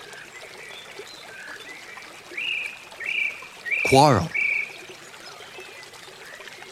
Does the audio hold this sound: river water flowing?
yes